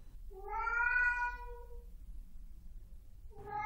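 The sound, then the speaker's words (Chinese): A frightened tabby cat in a corner beside the garbage area of a B1 basement parking garage lets out a long, drawn-out, wavering meow, then starts another cry at the very end, over a steady low rumbling hum with no voices. “阿昌叔叔顺着声音走进 B one 的垃圾场旁，用手电筒一照，果真在角落处看到了一只受到惊吓的虎斑猫。”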